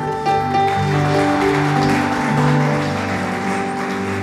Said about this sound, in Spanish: Aleluya. Quiere dar las palmas al Señor.